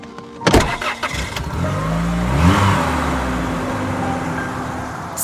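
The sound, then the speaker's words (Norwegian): A car engine cranks with a few sharp clatters, catches and revs upward, then settles into a steady engine drone as a journalist's car pulls away, heading toward Fjelltunvegen after a landslide. No one speaks. “Og han kaster seg i bilen og kjører mot Fjelltunvegen.”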